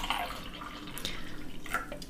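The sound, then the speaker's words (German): Non-sparkling iced tea in a sour apple rings flavour pouring into a glass, a steady trickling splash with bright, dripping highlights over about two seconds, fairly quiet and with no voices. “Ich habe mir das schon beim Einschenken gedacht.”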